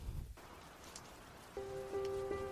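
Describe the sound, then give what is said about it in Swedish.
Steady rain patters continuously against a hard surface, a soft even hiss throughout, with a sustained musical tone entering about halfway and holding to the end. “Kanske lite regn i bakgrunden. Regn som slår mot asfalt eller mot ett fönster.”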